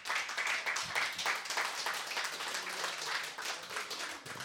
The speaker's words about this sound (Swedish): Först en eh, liten eh, applåd till vår ska vi säga, nye programledare